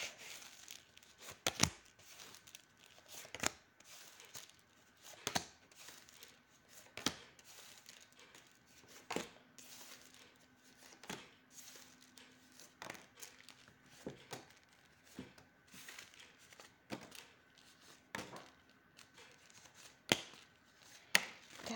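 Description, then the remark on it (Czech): Tarot cards being shuffled for a tarot reading: an irregular run of crisp, papery slaps and flicks with soft rustling between them, continuing steadily for about twenty seconds with no one talking. “A já už se dívám na vaši fotku, míchám to karty a podíváme se teda spolu, jak se bude barvit období od teď cca do konce února 2023.”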